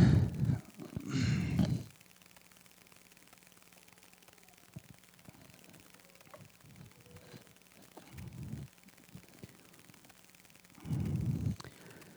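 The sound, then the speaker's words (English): Someone pauses to drink water: a breathy sigh-like exhale at the start, a long quiet stretch with a faint swallow, then another soft breath near the end. “I'm going to drink some water here.”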